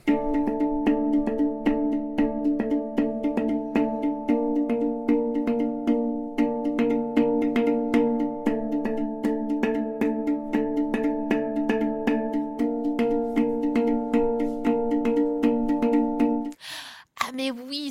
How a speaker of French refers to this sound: pendant les vacances, j'ai écouté un super groupe qui a intégré un joueur de hang dans son bande. Mais c'est quoi ça, le hang